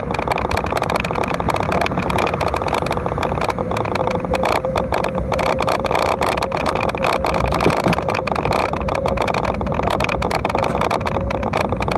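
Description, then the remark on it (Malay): A loud motorcycle engine runs steadily throughout, a continuous rough drone with a faint whining tone and no pauses or speech. “Okay, bunyi motor eh. Awal dia kita ni kuat betul bunyi enjin dia.”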